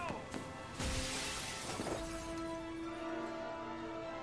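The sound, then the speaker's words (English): Glass shatters in a loud crash, followed by a scatter of tinkling shards and a few sharp clinks, then a faint lingering ring as the debris settles. “Sorry about the glass I, I just showered down on the crowd.”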